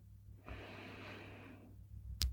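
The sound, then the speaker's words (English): A slow, deep inhale through the nose during a guided relaxation breathing exercise, steady for about a second, followed by a quiet pause and a brief soft sniff-like click at the end. No talking. “with your breath breathing in through your nose”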